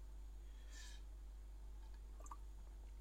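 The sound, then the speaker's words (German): A quiet sip of water by a person at a microphone: a brief slurping intake followed by a soft swallow and small wet mouth clicks, with no talking, over a low steady hum. “Ich nehme mal ganz kurz einen Schluck. Das können jetzt alle unsere Zuhörer hören.”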